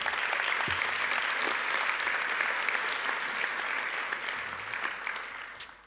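Sustained applause from an audience, a dense wash of many hands clapping at steady volume for about five seconds, then easing off slightly at the end.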